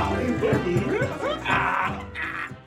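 A dog barks and yips in a quick, uneven series of short, excited calls, fairly loud, with brief whiny notes between the barks.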